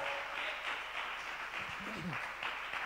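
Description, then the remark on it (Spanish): A crowd claps steadily throughout, giving applause to God for what is happening in the praise ministry, a dense, sustained wash of applause at moderate loudness, with a brief voice or cheer rising faintly underneath partway through. “Vamos a darle un aplauso a Dios por lo que está pasando en el ministerio de alabanza.”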